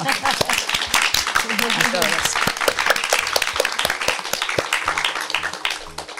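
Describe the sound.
A crowd applauds steadily for about six seconds, a dense crackle of many hands clapping at fairly even loudness, with a few voices cheering underneath before it thins out at the end.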